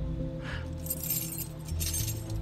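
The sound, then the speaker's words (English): A bunch of car keys to a Stingray, given as a game night prize, jangles in two bright, shaky bursts, with a low steady hum of background music underneath and no one talking. “the keys to the Stingray.”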